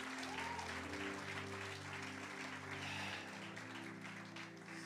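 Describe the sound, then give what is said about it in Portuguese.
A church audience applauds the Lord loudly and steadily, a dense wash of clapping over sustained organ or keyboard chords holding low tones throughout. “Aplauda o Senhor bem forte, aplauda o Senhor bem forte, aplauda, aplauda, aplauda.”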